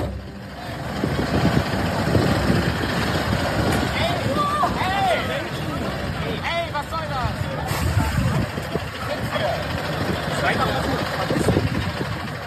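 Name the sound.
truck engine idling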